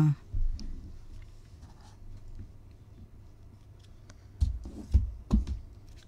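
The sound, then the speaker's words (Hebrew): A deck of cards being cut during a show before a card is drawn: a few soft papery slaps and clicks, mostly bunched near the end, over a low steady rumble with no talking. “בבקשה, תחצי את ה...”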